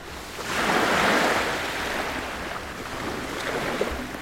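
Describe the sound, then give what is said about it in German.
Gentle, shallow waves of the Aegean Sea wash steadily onto a beach, a broad continuous hiss of water that swells early and then settles into a softer, even wash with no voices. “Ganz unten am Strand steht ein schwarz gekleideter Mann neben einem Felsen und wirft seine Angelschnur über die seichten Wellen hinaus auf die Ägäis.”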